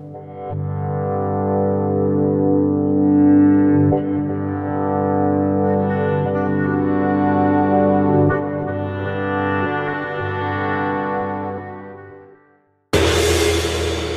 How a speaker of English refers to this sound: Hey, watch the gong, jerk.